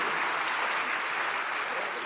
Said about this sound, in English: Awesome. Well, thank you. I'm going to clap for this because um, okay.